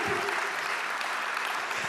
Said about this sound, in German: You better give God a praise. Gebt Gott meinen Applaus.